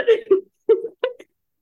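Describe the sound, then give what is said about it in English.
A person lets out four short, sharp yelping cries in quick uneven succession, fairly loud, like a small dog's yaps imitated by a human voice. “you sound like you yapped like a dog.”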